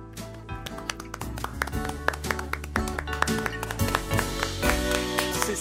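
A short round of applause from a couple of people: quick, irregular, moderately loud claps that keep up steadily for several seconds over a faint sustained tonal hum, with no one talking.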